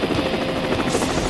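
A helicopter roars, its steady whirring drone filling the short moment with a rapid, throbbing rotor beat and a broad wash of engine noise, with no voices.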